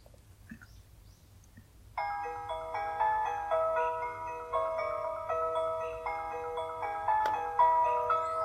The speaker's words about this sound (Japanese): これ聞いたことあるわこれだ、15山手線の新宿駅発車メロディです。